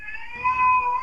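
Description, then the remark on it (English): A young child, a boy fighting bedtime, lets out a single drawn-out, high wailing cry, steady and fairly loud, swelling slightly in the middle. It's thin and almost cat-like in tone, with no talking around it. “that's my son. He's fighting bedtime.”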